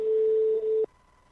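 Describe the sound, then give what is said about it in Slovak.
A steady, mid-pitched telephone tone sounds loudly for under a second as a dropped phone guest is redialed outside the network, then cuts off abruptly, leaving a faint, thin higher hum. No one speaks. “takže si ho musíme vytočiť znova. Mimo siete. Tak voláme mimo siete.”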